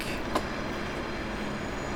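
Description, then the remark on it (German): A steady, low rumble of rail traffic in a rail yard where trains stand waiting to be cleaned or for their next service, with one brief metallic clank and squeal early on. There are no voices, just continuous train-yard ambience. “Überall stehen Züge, die gereinigt werden müssen oder auf den nächsten Einsatz warten.”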